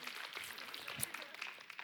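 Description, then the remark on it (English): A church audience claps during a sermon while the preacher pauses for a drink, in a steady, dense patter of many overlapping hand claps. It is fairly quiet and even throughout, with no single clap standing out and no voices clearly heard. “Yeah, let's, let's, you can clap and I can get a drink”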